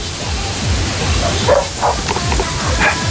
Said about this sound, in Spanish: perro ladra.